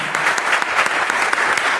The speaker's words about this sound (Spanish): Entonces, un aplauso para él, por favor.